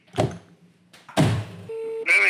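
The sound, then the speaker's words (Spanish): A phone call cutting off because the caller's phone credit ran out: two dull clunks, then a short, steady electronic tone, followed by a brief burst of warbling, voice-like sound at the end. “Su llamada terminó porque usted ya no tiene.”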